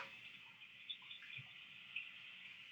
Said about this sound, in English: Is your sink on? You gotta talk into the phone. What do you have on right now? Nothing. I'm, I'm cleaning a dish in the sink.